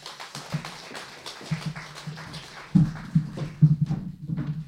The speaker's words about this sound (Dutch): Ja, dus eh, graag uw applaus voor